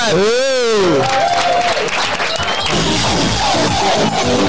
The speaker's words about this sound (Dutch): Dames en heren, applaus voor de